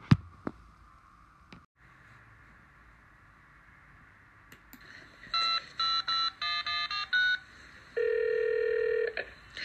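A telephone number being dialed: a quick series of about seven short, sharp dual-tone beeps in a steady rhythm, then a longer steady tone that pulses as the line starts ringing.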